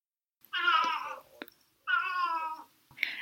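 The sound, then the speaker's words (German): A cat meows loudly, two drawn-out, wavering cries followed by the start of a third, with brief quiet gaps between them and no talking. “Ja, Katze, aber nicht jetzt.”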